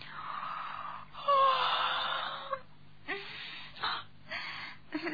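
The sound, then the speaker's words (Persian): A drawn-out, breathy yawn performed by a voice at sunrise, stretching for a couple of seconds before trailing into a few shorter exhaled breaths and sighs, fairly quiet. “تا اون که سرانجام یه روز صبح درست با برآمدن آفتاب نقاب از چهره برداشت و با اینکه اون همه دقت و ظرافت رو آرایش و پیرایش خودش به کار برده بود خمیازه کشون گفت”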